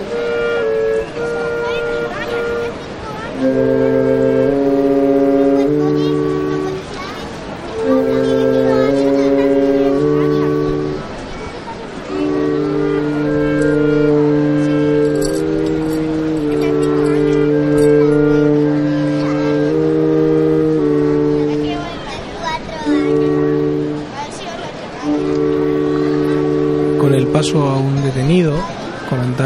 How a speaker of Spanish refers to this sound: delante del paso del Santísimo Cristo de Acente mientras escuchamos la música de capilla que acompaña a este Cristo muerto.